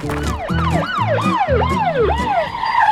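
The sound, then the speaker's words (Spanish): Police patrol car sirens wail in rapid repeating sweeps, loud, with a low vehicle rumble underneath, as several police officers arrive in patrol cars; no one speaks. “En un abrir y cerrar de ojos, varios oficiales de policía llegaron en patrullas, los rodearon y los esposaron.”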